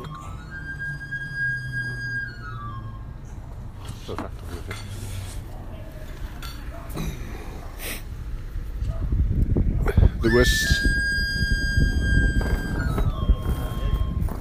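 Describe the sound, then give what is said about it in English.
A knife sharpener's whistle, from a man pushing his moped along the seafront, plays bright, sliding pipe-like notes, once at the start and again louder near the end, over busy street clatter while someone speaks briefly. “that whistling is the um, the knife sharpener, blade sharpener.”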